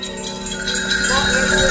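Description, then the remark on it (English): A dense, continuous shimmer of many bells, wind chimes and children's horse bells from Pakistan being rung together in St Albans, bright and sustained with overlapping metallic tones, fairly loud and steady throughout. “Wind chimes, children's horse bells from Pakistan. They're all being rung.”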